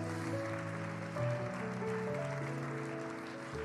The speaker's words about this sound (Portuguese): Aplaude o nome de Jesus mais uma vez.